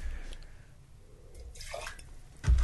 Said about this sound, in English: Give this glass a rinse.